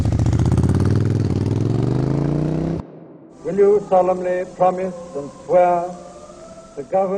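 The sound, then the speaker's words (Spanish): A motorcycle engine roars, its pitch climbing steadily as it revs for about three seconds before cutting off abruptly, evoking Ernesto "Che" Guevara beginning his motorcycle travels; a voice then speaks in short phrases. “Ernesto Guevara, el Che, inicia sus viajes en motocicleta.”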